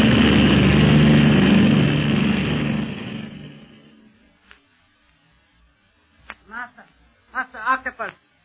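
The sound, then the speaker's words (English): A loud, droning airplane engine roars steadily as the plane climbs higher into the air instead of landing, then fades quickly over a few seconds; after a short pause, a voice speaks briefly. “They are not landing. Instead, they are climbing higher into the air.”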